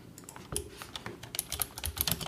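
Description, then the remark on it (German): Quick, uneven clicking of keys on a computer keyboard as someone types out a message, a steady flurry of soft taps with no voices. “Aber warte mal, ich kann dir auch mal schreiben, wer das ist.”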